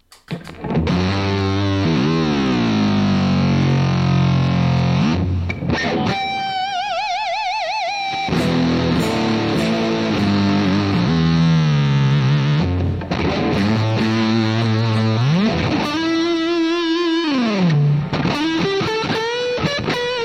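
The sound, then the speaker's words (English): A Stratocaster electric guitar played loud through heavy distortion, with sustained lead notes, sliding bends and wide vibrato on held tones, a few sharp pauses between phrases, and no voices. “Sounds like a Stratocaster, you know?”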